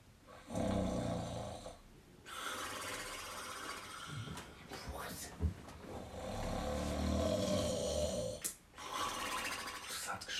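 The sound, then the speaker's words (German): Loud, raspy snoring of a huge animal lying in a cave, a few long rumbling breaths separated by short pauses, with no talking over it. “geschnorchelt aus der Höhle. Aber so laut äh, er Zwerg hat gedacht, das habe ich noch nie gehört.”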